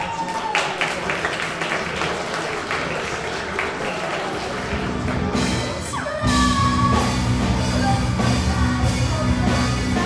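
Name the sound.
audience applause and cheering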